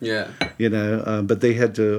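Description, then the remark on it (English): A teaspoon clinks against a cup of tea several times in quick, uneven taps, fairly bright, while a person talks over the clinking. “See, that's the that's the, that's the sound of tea, people.”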